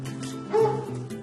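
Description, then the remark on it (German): A dog, home alone when a Republican campaign volunteer calls on a voter during a US election campaign, barks in a quick run of yapping woofs, with one louder, sharper bark in the middle, with no one speaking. “Gut, manchmal ist nur der Hund zu Hause.”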